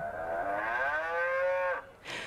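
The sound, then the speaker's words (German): A single long, drawn-out moo from an artificial donation cow at a temple in Bangkok that is fed money, loud, with a steady harmonic tone lasting nearly two seconds, followed by a brief burst of noise as it cuts off. “Eine künstliche Kuh wünscht jedem, der sie mit Geld füttert, Gesundheit, Reichtum und ein langes Leben.”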